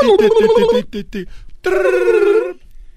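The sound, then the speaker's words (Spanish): A voice imitates a telephone ringing, first with a quick series of warbling pulses, then after a short pause a longer, steady ringing tone, loud and clear with no other talk. “Está haciendo la voz, el efecto del, del teléfono.”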